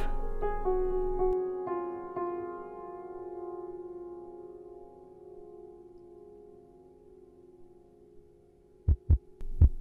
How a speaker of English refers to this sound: Our breath and heartbeat are the most tangible physical rhythms of the vital energy animating the body.